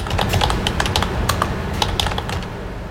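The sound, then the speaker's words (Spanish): Rapid, irregular keystrokes clatter on a computer keyboard with sharper mouse clicks, steady for a few seconds over a faint low background hum, with no voices, as someone in a laboratory types to send PCR test results. “Ese será el sonido, el clic del ratón y el tecleo para enviar estos resultados.”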